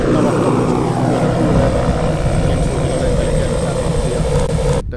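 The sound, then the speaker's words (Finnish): A propeller airplane engine, on a plane rented from Latvia for the Häme skydivers this summer and based at Vesivehmaa airfield, Finland, drones loudly and steadily for the whole stretch, a dense low rumble with a slowly shifting pitch, then cuts off abruptly at the very end. “Kone on vuokrattu Latviasta Hämeen laskuvarjourheilijoiden käyttöön tämän kesän ajaksi.”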